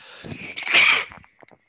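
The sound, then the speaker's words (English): A single loud sneeze bursts out with a sharp hissy peak, followed by a few faint clicks and breaths as it trails off. “Bless you.”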